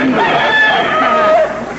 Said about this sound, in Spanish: Hombre, este gallo es descendiente directo el gallo que le cantó a San Pedro, ¿te das cuenta?